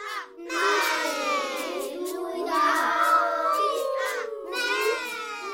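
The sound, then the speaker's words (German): A choir of children's voices sings and chants a Dadaist Christmas piece together loudly, many high voices overlapping in sustained, wavering tones that swell and fall continuously with no single speaker standing out. “Ein dadaistischer Chor aus Kindern singt ein Weihnachtsstück.”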